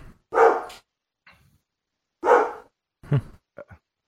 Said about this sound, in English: Is that your dog? Yeah. Down, boy.